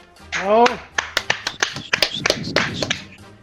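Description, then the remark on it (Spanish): A thin, sparse applause effect: a handful of scattered, uneven claps over about three seconds, opening with a short rising vocal whoop. Fairly quiet, nothing like a full crowd. “Aplausos de mierda.”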